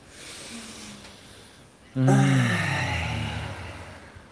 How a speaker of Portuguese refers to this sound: Vamos fazer uma respiração profunda.